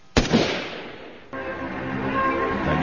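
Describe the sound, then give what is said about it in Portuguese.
A single loud revolver gunshot cracks sharply as a man draws the gun from his waist and pulls the trigger, its echo trailing off over about a second before a steady, droning background sound takes over. “no exato momento em que o homem saca da arma e aciona o gatilho.”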